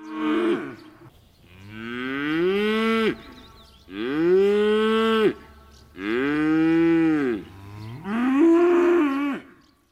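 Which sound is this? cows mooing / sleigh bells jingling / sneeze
cows mooing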